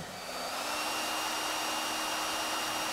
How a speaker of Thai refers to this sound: What's that sound What's that noise A blow dryer. Oh, someone must be blow drying their hair.